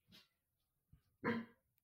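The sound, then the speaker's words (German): A dog gives a single loud bark, preceded a second earlier by a softer, short huff; otherwise the surroundings are quiet. “Nicht bellen. Nicht bellen.”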